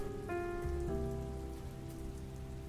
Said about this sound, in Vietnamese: ôi đêm mưa